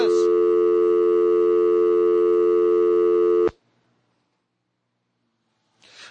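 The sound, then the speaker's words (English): A steady, loud electronic telephone tone drones for several seconds after a call dropped when the phone's battery apparently died, then cuts off abruptly into silence before a brief noise near the end. “We cut off Chris!”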